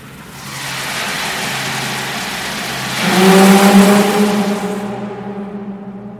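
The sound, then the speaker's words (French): A reversible hydroelectric turbine unit starts up and runs at maximum power, driven by water, a steady rushing roar that swells midway into a louder, droning hum with strong tonal whine, continuous, with no voices. “mais pour moi, c'est toi ce, bruit, ces groupes réversibles qui démarre, on sent la puissance de l'eau on l'entend en plus.”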